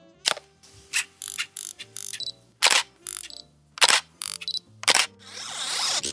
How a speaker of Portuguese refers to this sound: E também, lógico, tinha a ver com algum episódio lá de Black Mirror, que era uma câmera fotográfica dando zoom e tirando foto.